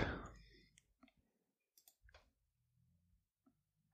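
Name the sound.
computer mouse clicking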